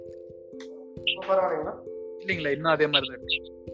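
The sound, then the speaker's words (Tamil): A steady electronic hum of layered tones runs beneath a phone-line voice with heavy echo and noise on the call line, giving the call a degraded quality as a man speaks in short bursts. “echo echo ரொம்ப அதிகமா இருக்கு நாய்ஸ் அதிகமா இருக்கு”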